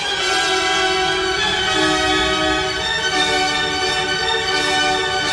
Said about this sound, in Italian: adesso assistiamo a uno di quei colossali crescendi no? di, di Tchaikovsky, gradualissimi, che portano inevitabilmente all'esplosione